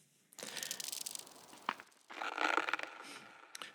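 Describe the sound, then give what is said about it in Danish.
Noisy sips from a glass of water in two stretches with a short pause between them, followed by a brief swallow-like click at the end. No one speaks. “Ja, så fik jeg lige et, øh, et glas vand i stedet for en kop kaffe den her gang.”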